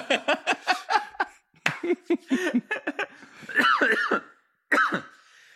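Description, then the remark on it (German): An abrupt cough-sneeze bursts out amid a run of breathy, rhythmic laughter, with a few more short throaty bursts and chuckles trailing after it. “Ja, ich musste gerade so ein... Hust, Hustniesen.”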